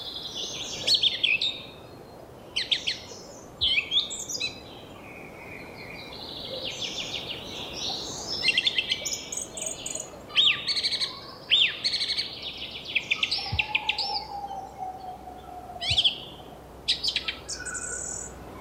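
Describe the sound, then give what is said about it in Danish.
A song thrush sings from a treetop, repeating bright, varied phrases in short bursts with brief pauses between them, set against a steady outdoor hiss with faint insect-like background chirping. “Nemlig sangdrosslen.”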